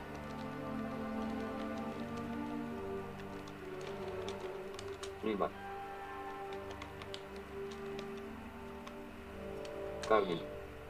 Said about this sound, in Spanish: Escuchamos un sonido que nos indica que ahí hay un error ortográfico.